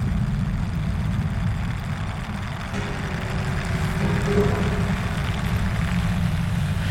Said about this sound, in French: Ça participe à la stabilisation du vin, mais cette fermentation, crée aussi du gaz carbonique, du CO2. Et ce qu'on entend, c'est ce crépitement de gaz carbonique. Le son fait partie, est, un outil dans la fabrication du vin.